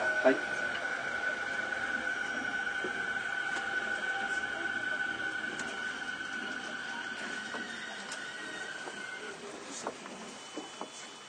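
Inside a moving Toei 10-300 series (third batch) commuter train running between Shinsen-Shinjuku and Takaosanguchi: a steady rumble of running noise with a sustained electric motor whine, fading slightly before a few sharp clicks near the end.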